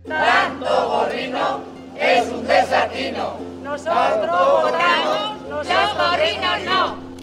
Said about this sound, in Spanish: Lo que oímos son protestas de ganaderos en Cuenca, también se dieron en Valencia, en Burgos, en Segovia, contra la proliferación de las macrogranjas y sobre el impacto que tenía sobre el mercado y sobre la calidad de lo que exportamos.